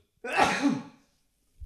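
A single forceful sneeze bursts out with a sharp breathy blast, then fades into silence, followed by a faint low thump at the very end.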